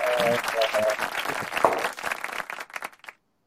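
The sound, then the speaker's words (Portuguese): A canned applause sound effect: dense, steady crowd clapping with a faint whoop near the start, thinning into scattered claps before cutting off after about three seconds. “agora, agora eu implementei palmas, cara, para dar aquele, né?”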